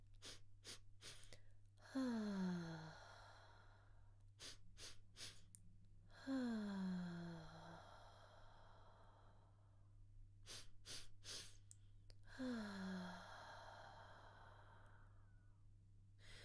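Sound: three quick nasal inhales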